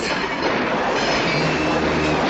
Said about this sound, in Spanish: Al disparo de Lane, los maquinistas ponen el tren en movimiento.